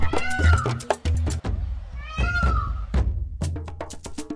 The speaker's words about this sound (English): I hear a peacock yelping in my ear.